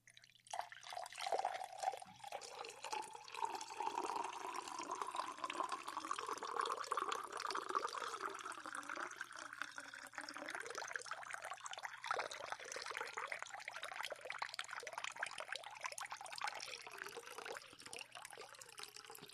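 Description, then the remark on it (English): Water pours steadily into a container, a continuous splashing gurgle whose tone slowly rises as the vessel fills, running for nearly twenty seconds with no talking. “the water as fast as I was pouring it.”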